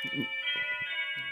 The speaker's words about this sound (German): Was ist denn das? Hast du, hast du so eine Standuhr zu Hause oder was? Nein, das, das, nein, das, ist eine, das war meine Türklingel. Und die, die, kann man ein, die kann man verschieden einstellen und das war der Ton.